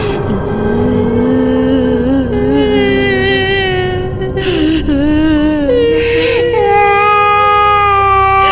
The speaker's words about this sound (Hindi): रात को बच्चे लिविंग रूम में ही सो गए पर जब हम अपने रूम में लेटे तो हमें रात भर बच्चों के रोने की आवाज सुनाई देती रही